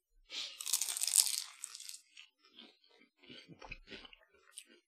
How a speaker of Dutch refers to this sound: ik ga ook nog een hapje nemen van de andere. Ik heb een beetje honger.